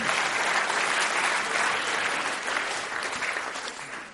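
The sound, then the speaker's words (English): An audience applauds a volunteer called up from the crowd, dense clapping filling the whole stretch at an even, strong level before easing off slightly toward the end. No voices come through over it. “A big round of applause for my volunteer.”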